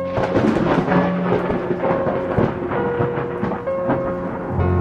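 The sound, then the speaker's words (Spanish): A loud, heavy thunderclap rolls on as a continuous deep rumble for several seconds, booming with no break, and no voices. It is heard in town streets at night, shortly before rain begins. “Recorrió las calles apresuradamente cuando escuchó un estruendoso rayo.”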